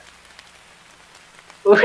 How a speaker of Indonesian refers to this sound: Waduh, itu telat Pak, udah hujan Pak.